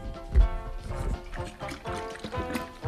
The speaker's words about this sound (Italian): No, quella è la bottiglia d'acqua, si capisce.